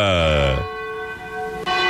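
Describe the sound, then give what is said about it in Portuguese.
A large bell of the Cathedral of Nossa Senhora Aparecida rings at about six minutes to 10 at night with a loud, resonant toll whose tones hang and slowly fade, then another strike rings out near the end, full. “sino da Catedral da Nossa Senhora de Aparecida.”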